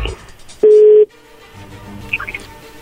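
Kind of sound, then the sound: signal or alarm, telephone call tone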